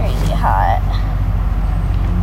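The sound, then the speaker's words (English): A steady, loud low engine rumble fills the inside of a bus, droning evenly throughout with a brief higher squeak or murmur near the start. “if you were in this bus, I would be freaking out because I'm so hot right now.”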